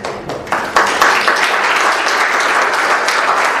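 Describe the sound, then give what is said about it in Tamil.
An audience at a Periya Puranam discourse applauds steadily, a dense wash of many hands clapping, rising quickly and holding a full, even level throughout. “ரெண்டாவது அப்படியே சொன்னாலும் இவ்வளவு பேர் விடாம வந்து கேட்டதாகவும் சரித்திரம் இல்லை இதுக்கு நான் தானே கையை தட்டணும்”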